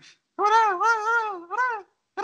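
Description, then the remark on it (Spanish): A voice imitates squeaky video game gibberish, producing high, wavering nonsense syllables in two or three loud bursts with brief pauses between them. “Güey, la primera vez que las escuché me sacó de pedo porque era como.”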